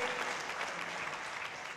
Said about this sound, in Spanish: Ese aplauso podría ser un sacrificio de alabanza al Señor.